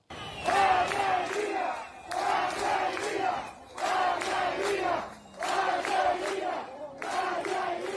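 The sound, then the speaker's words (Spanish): A crowd of protesters in Cuba, at the largest protests against the Castro government in 60 years, in July, shouts in unison, rhythmic bursts of chanting voices rising and falling about every one and a half seconds, loud and sustained with brief dips between phrases. “por el estallido ese mismo mes en Cuba de las mayores protestas contra el castrismo en 60 años.”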